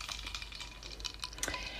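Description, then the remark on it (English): Ice cubes clink lightly against a glass of gin in a few quick, irregular taps, with a faint liquid slosh in between. Quiet, with no voices. “Can you that hear that clink, chink clink. chink? That's yes. the ice against the glass.”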